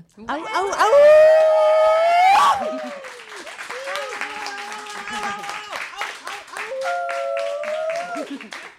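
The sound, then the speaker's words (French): An ovation for the détricoteuses: clapping with loud, sustained whooping and howling cheers that rise and fall in pitch, easing to steadier applause and then another drawn-out cheer near the end. “Euh, et aussi, évidemment, faire une ovation de folie aux détricoteuses.”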